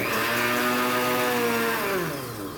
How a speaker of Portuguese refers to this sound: É como se um liquidificador com meio copo de água ficasse ligado num ambiente muito pequeno e totalmente fechado, com a pessoa a menos de um metro do eletrodoméstico.